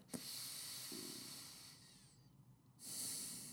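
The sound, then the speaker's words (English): A slow, deep breath drawn in through the nose into the belly during a breathing exercise, then a pause and a steady exhale through the nose, airy with a hissing, slightly snorting texture and no talking. “I'm going to take a deep breath in now, just through the nose and out through the nose, and really just focus on breathing into your belly.”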